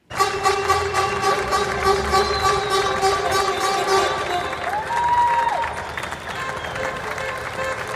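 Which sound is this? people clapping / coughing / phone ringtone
people clapping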